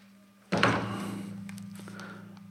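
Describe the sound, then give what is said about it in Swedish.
A door is opened as people come home, with a sudden heavy thunk, followed by a sustained low hum and faint rattling as it settles, with no voices. “Vi pausar lite, de kommer hem när jag ska bara öppna dörren och så.”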